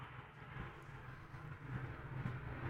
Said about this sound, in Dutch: Oh, wauw. Ja. Een F-16 opstaan. Ja, dat is de tweede wave van f 16 die de lucht in gaan. Ja. Wauw. Blijft spectaculair.